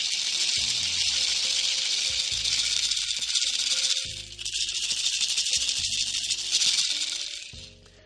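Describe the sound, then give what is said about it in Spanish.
Two maracas shaken in a steady, dense rattle, one brighter and higher-pitched, the other lower. The shaking hisses on without pause, dipping briefly midway, with no voices. “Yo tengo aquí dos maracas. Vamos a ver si se escucha.”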